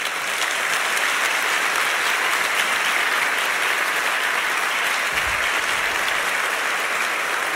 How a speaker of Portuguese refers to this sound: Olha, é esse povo, não é? Querido e amado, que merece o aplauso de vocês.